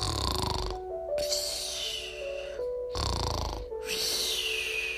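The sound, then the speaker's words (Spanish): A voice imitates the snoring of someone lying under a tree: two long, rasping inhaled snores, each followed by a whistling exhale, repeating in a slow rhythm, fairly loud with no other talk. “A Juanito acostado debajo de un árbol, roncando.”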